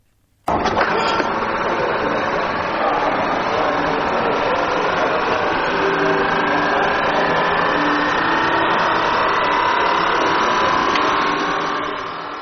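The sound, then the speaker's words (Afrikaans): An electric car switches on with an abrupt start, then settles into a steady, fairly loud electric whir and hum, with a faint whine slowly rising in pitch. No one speaks. “Dis hoe dit klink as 'n elektriese motor aangeskakel word.”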